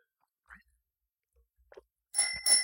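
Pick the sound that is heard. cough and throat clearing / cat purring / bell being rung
bell being rung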